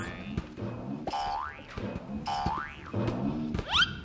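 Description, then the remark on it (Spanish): Cartoonish boing effects of bouncing balls, several springy rising and wobbling tones repeating one after another over a busy musical backdrop, fairly loud. “Parecía parque de diversiones había columpios, resbaladillas largas, largas, y del cielo llovían pelotas rebotinas.”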